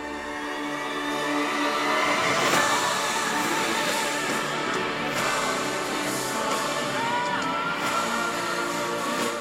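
Steady street ambience drifting in through an open window: a continuous wash of traffic noise with passing vehicles swelling and fading.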